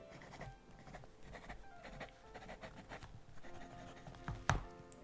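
A fountain pen nib scratches across paper in quick, irregular quiet strokes, with a sharper tap near the end and no one speaking.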